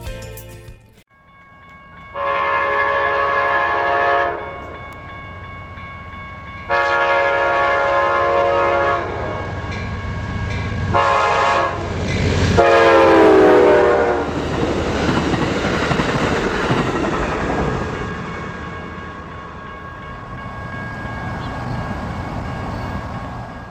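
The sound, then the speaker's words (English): A train horn blares in two long blasts, then shorter ones as the train rumbles past, its wheels clattering and the noise swelling before trailing off. No one speaks. “some reason, the holidays seem to bring on thoughts of trains for a lot of folks.”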